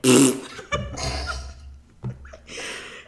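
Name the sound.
voice imitating a fart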